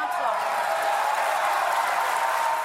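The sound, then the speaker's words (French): Dense, sustained applause from deputies in the French National Assembly chamber, rising on each side to celebrate an opposition vote victory of 196 to 183, a steady roar of many hands clapping at once with a murmur of voices mixed in, loud and unbroken throughout. “Un tonnerre d'applaudissements et des députés qui se lèvent de chaque côté de l'hémicycle pour célébrer leur victoire.”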